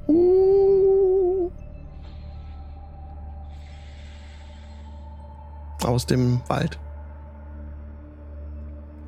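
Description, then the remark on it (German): A single wolf howl, a long steady wavering tone lasting over a second, opens over a low constant rumble. A person speaks a few words briefly near the end. “Und er hat Wölfe heulen.”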